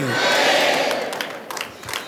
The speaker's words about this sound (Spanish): Le dan un aplauso fuerte al Rey de Reyes, Señor de los Señores.